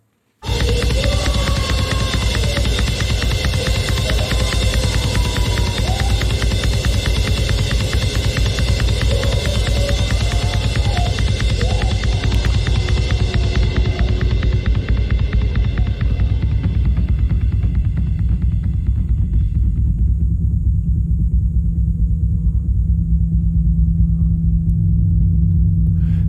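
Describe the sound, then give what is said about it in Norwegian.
Dense, loud drumming at a concert fills the hall, then gradually turns muffled and dull as the highs fade away, leaving a low, throbbing rumble as if heard from inside a man's head. “Først og vær i salen og hør eh, det blir spilt trommer, og så går vi inn i hans hode.”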